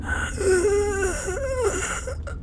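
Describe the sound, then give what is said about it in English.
A voice imitates wheezing breath with two strained, drawn-out, moaning sounds that waver in pitch, fairly loud, with no words spoken. “That's his wheeze.”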